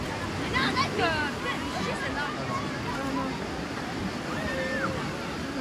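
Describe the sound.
Busy, crowded beach soundscape: a steady wash of surf underlies overlapping chatter and a few higher voices calling out, all blended into a continuous, moderately loud hubbub.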